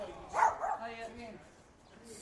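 A dog barks twice in quick succession, loud, followed by softer, lower sounds that fade out over the next second or two.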